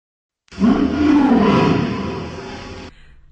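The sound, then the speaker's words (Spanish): A single enormous, deep lion's roar rises abruptly in a forest and holds loud and close for over two seconds, its rumbling growl gradually easing before cutting off, with no voices present. “De repente, un enorme rugido se oye en el bosque.”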